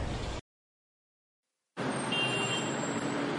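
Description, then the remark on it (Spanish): Steady road traffic noise, a dense wash of engine rumble and tire hiss, drops out into brief silence and then returns just as loud with a faint high-pitched whine above it. “Te marco luego porque, ay, qué huevada da con estos días de tráfico.”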